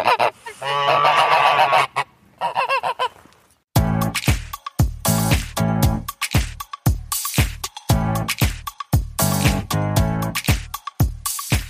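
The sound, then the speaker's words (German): Geese honk loudly, first in a long continuous clamor, then in a rapid series of sharp, repeated honks with no talking. “Und von daher äh, kennt man also auch Gänse tatsächlich als römische Alarmanlage.”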